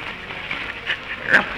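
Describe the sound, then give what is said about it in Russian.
A puppy, Peter, pants quickly and breathily as he rushes in, with a couple of short, high yips popping out near the end. No one speaks. “И вдруг, откуда ни возьмись, хлопая ушами и виляя хвостом, примчался щенок Питер.”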